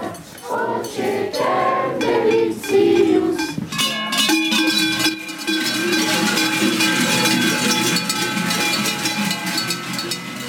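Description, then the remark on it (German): Many cowbells carried through a village for the Chalandamarz custom clang together in a loud, continuous jangle, their overlapping metallic rings shaking in an uneven rhythm. “Vielleicht laufen die sie in ein, zwei Jahren auch mit Glocken durchs Dorf.”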